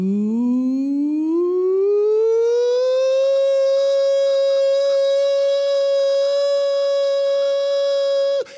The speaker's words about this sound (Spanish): Sabemos lo que es para la ciudadanía israelí escuchar una, una sirena que dice más o menos así